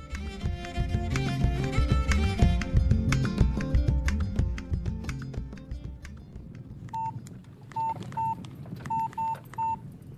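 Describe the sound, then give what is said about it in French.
A quick run of about six short mobile phone keypad dialing beeps, tapped in an uneven rhythm by a man in the back seat of a car with tinted windows parked in front of an apartment, after a dense, busy stretch of background music and noise fades out. “Derrière ses vitres teintées, l'honorable Makemba est assis sur le siège arrière et passe un coup de fil avec son téléphone portable.”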